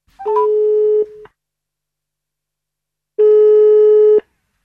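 Two long, steady ringback tones sound on an outgoing phone call to a researcher, each about a second long, separated by a pause of roughly two seconds. They come through clearly, with no talking over them.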